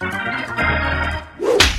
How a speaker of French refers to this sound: Bon, c'est une super transition pour attention jingle.